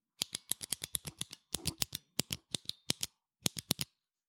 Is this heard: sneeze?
no